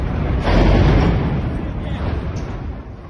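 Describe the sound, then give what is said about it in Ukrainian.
A single heavy explosion at night in the city of Kharkiv bursts in with a deep, rumbling boom that rolls on and slowly fades, loud, with no voices over it. “Особливо вночі, коли місто мільйонник впадає в анабіоз і настає така тиша, що чути, як в траві під теплотрасою повзе гадюка, а потім вибух.”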